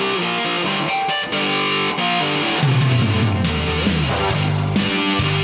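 An Italian cover band plays rock live, sustained distorted tones building until heavy drum hits kick in around halfway, the whole mix loud and dense.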